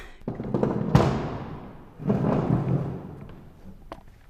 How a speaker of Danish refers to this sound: Jeg trækker lige en stol hen og sætter mig ved siden af dig.